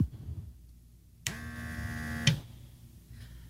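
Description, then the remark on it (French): A small suction machine motor switches on abruptly to perform suction, holds a steady electric hum with a bright whine for about a second, then cuts off with a click, leaving quiet. “Alors, celui-là, ah. il va faire la succion.”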